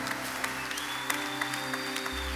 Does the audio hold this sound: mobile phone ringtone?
no